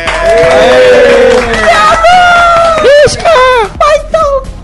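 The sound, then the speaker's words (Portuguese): A live audience at Campus Party Brasil 2012 erupts in loud cheering, whoops and shouts over a wash of clapping, sustained for several seconds before breaking into scattered bursts of voices. “Salva de palmas, Valeu!”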